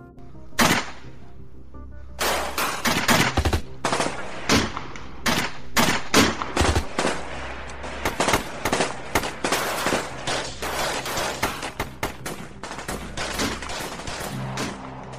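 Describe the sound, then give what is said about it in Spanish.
Rapid gunfire from a shootout between prosecutors sheltering behind their patrol car and armed men by a truck, dense bursts of sharp cracking shots firing almost continuously, some overlapping in quick volleys, loud throughout with brief irregular pauses and no talking. “Seguía la balacera, observando que uno de los sujetos se había subido al camión, intentando encenderlo, no logrando su cometido,”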